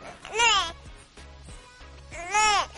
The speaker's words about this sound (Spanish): Con cinco sonidos que identificó de los bebés, se podrá saber qué les pasa. El primer sonido es ne y significa que tiene hambre.